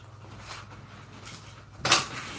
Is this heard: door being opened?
yes